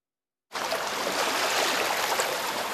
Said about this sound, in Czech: Rybářská ulice v Krumlově. Do fasády domu Pavla Hanzala narážejí vlny. Do rána stoupla voda o 10 cm na 212.